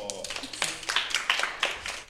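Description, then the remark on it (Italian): Scattered audience applause: a small group clapping in an uneven, sparse rhythm of sharp, crisp hand claps for about two seconds, with a faint voice or murmur underneath. “Beh, allora grande applauso!”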